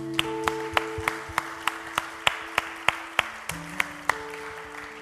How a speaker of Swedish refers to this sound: Jag tycker vi applåderar Jesus för vad han precis gjorde.